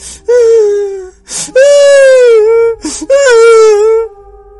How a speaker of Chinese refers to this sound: 可他半夜里刚睡着，就做了这么一个梦，梦里有这么一片坟地，隐隐约约在这个老坟的附近有一个女人的哭声。